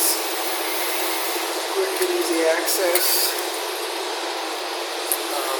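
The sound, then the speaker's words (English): A noisy drinks chiller runs with a steady, unbroken hiss-like whir that fills the whole clip, while a person talks briefly over it. “There's our noisy chiller.”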